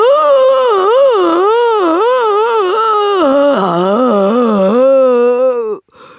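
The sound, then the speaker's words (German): A voice imitates the deafening roar of a monster made of a horrible mix of monstrous body parts, charging along a corridor: one loud, sustained, warbling howl whose pitch wobbles up and down for nearly six seconds, dipping lower near the end before cutting off abruptly. “Dann, als es ihn fast eingeholt hatte, zerriss sein ohrenbetäubendes Gebrüll die Luft.”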